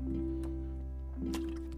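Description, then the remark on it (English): Someone takes a couple of quiet, wet sips of water, two brief slurping bursts over a steady low background hum, with no talking. “Uh, every time I have that feeling that I'm gonna cough, I'm just gonna take a sip of water.”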